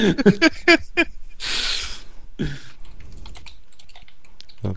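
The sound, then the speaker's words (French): Crisp typing on a computer keyboard, writing a message on Skype: quick irregular bursts of clacking keystrokes, with a brief rougher rustle partway through and a few scattered taps toward the end. “C'est la séquence euh, clavier.”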